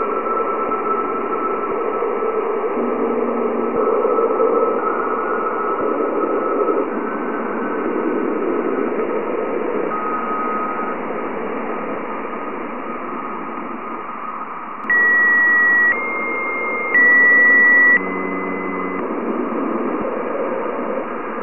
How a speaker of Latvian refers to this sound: Zinātnieki ir izdomājuši paņēmienus, kā pārvērst radioviļņus dzirdamā skaņā. Lūk, piemēram, radiosignāli no Jupitera.